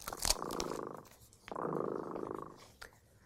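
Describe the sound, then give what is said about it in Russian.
The cat Tremota purrs, a low steady rumble in two long breaths with a short pause between them, fairly soft and with no talking over it. “Слышите? кот Тремота запел свою песенку.”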